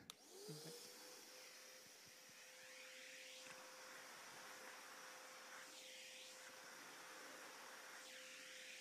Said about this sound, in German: Staubsaugen klingt so, für alle, wo es nicht kennen, so ein kurzes Learning dazu. Man drückt den Knopf und man steckt zuerst ein.